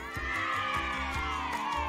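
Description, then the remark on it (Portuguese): A dense chorus of high, excited squeals and joyful shouts from many little insects, layered together into a constant joyful din with a few sharper cries poking through. “Tudo por causa dos gritos de alegria de todos os insetinhos.”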